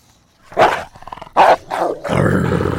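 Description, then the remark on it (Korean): A fierce dog growls and lets out several loud, harsh barks in quick succession, aggressive, ending in a rough, sustained snarl with no voices present. “멍멍이 소리가 아니라 개소리인데 아주 사나운 개소리입니다.”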